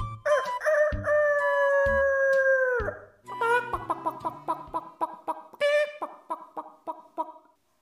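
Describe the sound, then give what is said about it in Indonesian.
A loud rooster crows in the morning: one long drawn-out note lasting a couple of seconds, followed by a quick, uneven string of short clipped calls that taper off. “Di pagi hari terdengar suara ayam yang berkokok.”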